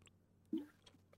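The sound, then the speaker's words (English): A single quiet, wet gulp of someone swallowing a tablet, a short low squelch midway through, surrounded by faint mouth noises and a steady low hum, with no talking. “Sorry, I'm swallowing a tablet.”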